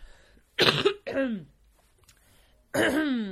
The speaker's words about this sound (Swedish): Den här rökhostan som jag fått utan att röka.